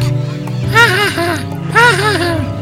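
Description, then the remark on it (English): Two bursts of loud, wavering goose honks, each a quick run of cackling calls that rises and falls like laughter, over a steady low background drone. “cried the laughing goose.”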